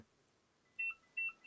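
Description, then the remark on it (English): A telephone rings with an electronic tone for an internal call, sounding in short, evenly spaced double-pitched bursts. It is fairly quiet and alone, with no talking. “oh it's an internal call.”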